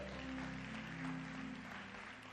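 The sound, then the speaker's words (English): An audience claps their hands in a dense, steady wash of applause that holds at an even level throughout, with a low sustained hum underneath and no voices. “Oh, if you are clapping your hands, clap it well.”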